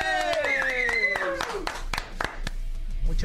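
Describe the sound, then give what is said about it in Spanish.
Scattered applause welcoming a guest, with sharp, uneven claps for about three seconds, a loud wavering voice cheering over the first half before the clapping continues on its own. “Yo quiero pedir un aplauso, por favor,”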